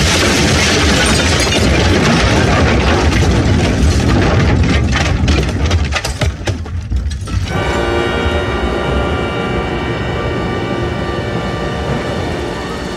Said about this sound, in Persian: صدای انفجار صدای انفجار صدای انفجار صدای انفجار مهیب از جایی که من هستم